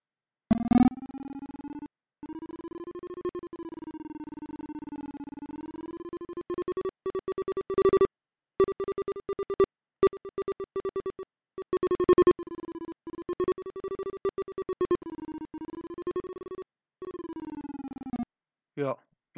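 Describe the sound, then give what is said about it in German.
Screen reader tones sound on a Windows computer with speech output switched off as the pointer moves across desktop icons: a steady electronic hum whose pitch glides up and down, broken into rapid choppy bursts near the end, fairly loud. “Dann hört ihr auch, wenn ich über ein Desktop-Symbol fahre.”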